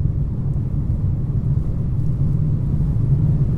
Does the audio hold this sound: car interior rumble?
yes